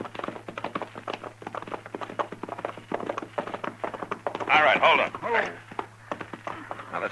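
Horses' hooves clip-clop at an unhurried walking pace, a steady run of hollow knocks over a low constant hum, with a brief tonal burst partway through.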